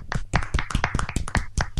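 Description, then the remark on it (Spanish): A short burst of applause: sharp, fairly loud hand claps in a quick, slightly uneven rhythm, like a small group clapping together, with no one talking over it, given to close the first segment recorded over Skype. “Yo pido, un fuerte aplauso para el primer bloque fichístico grabado a través de Skype.”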